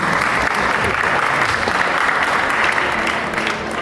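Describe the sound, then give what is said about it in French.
Sustained audience applause welcoming the team of the web series Random, the fourth nominee at an awards event, a dense, steady wash of many hands clapping at an even loudness throughout, with no distinct individual claps standing out. “Quatrième nominé, grande d'accueillir et d'applaudir l'équipe de Random,”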